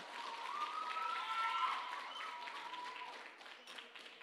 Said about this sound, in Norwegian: Det var en laber applaus. Kom igjen, nå.